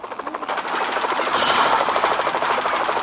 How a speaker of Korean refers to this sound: 아, 게임 볼륨을 크게 해뒀나 보네. 총소리와 포탄 소리, 헬리콥터 소리.